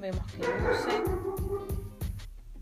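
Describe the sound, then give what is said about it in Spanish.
A dog barks repeatedly in quick, steady bursts, about six sharp, fairly loud barks, because someone has arrived, while a person keeps talking over them. “Ese es mi perro ladrando, porque hay algo, alguien que vino.”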